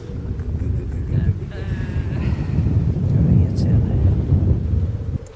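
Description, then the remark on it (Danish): Strong wind buffets the microphone in continuous low, rumbling gusts throughout, loud, with a faint higher tone and some muffled activity mixed in. “Åh, oh, det blæser!”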